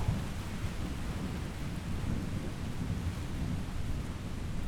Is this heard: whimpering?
no